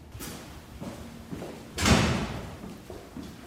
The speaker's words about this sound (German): Ein ganz besonderer Kirchenraum, man hört es, glaube ich, schon am Echo und am Klang. 29 Meter hoch und äh, ein gewaltiges Kirchenschiff.